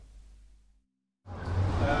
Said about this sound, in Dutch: Eh, ik sta, ja, achter mij hoor je de bussen, maar voor mij is een uh, tweedehands spullenzaak van de British Heart Foundation.